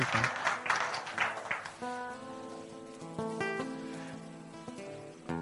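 A short burst of audience clapping, dense and noisy for under two seconds, fades as sustained instrumental music notes take over and continue steadily to the end.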